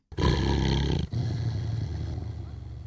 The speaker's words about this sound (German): Ihr habt's bestimmt erkannt, oder? Das war ein Hund, der gerade nicht so gut gelaunt ist. Ja, was dem Kerl gerade für eine Laus über die Leber gelaufen ist, weiß ich leider auch nicht.